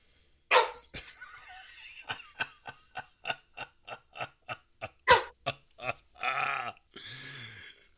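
A dog barks from outside in a couple of sharp, loud bursts, with a series of short rapid pulses between them, then gives a low, drawn-out growl near the end.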